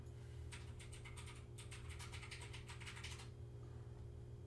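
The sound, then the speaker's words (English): Rapid, clattering computer keyboard typing in quick irregular bursts for about three seconds, fairly loud over a steady low hum, then it stops. “The keyboard's really loud.”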